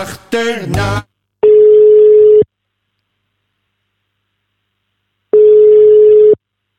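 Two long, steady ringback tones of an outgoing phone call to an ambulance colleague in Friesland, each about a second long with a few seconds of silence between, preceded by a brief burst of tonal electronic sound.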